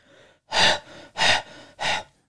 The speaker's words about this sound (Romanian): Deci inspiri și expiri tare cu voce, poate să fie ca un oftat, poate să fie un sunet